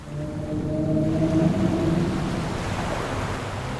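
A Bryde's whale, a smooth-bodied whale 7 to 13 metres long, vocalizes: a low, drawn-out tonal moan with layered harmonics lasting about two seconds, set against a steady wash of underwater noise that continues after the call fades.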